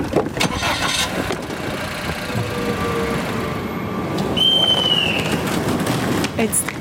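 A car engine cranks and catches, then settles into a steady low rumble, with a brief high whine rising over it partway through, as the car sets off to drive to Langquart railway station.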